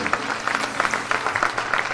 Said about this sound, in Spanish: Es un montón y merezco un aplauso. Sí, totalmente. Todos los aplausos para vos porque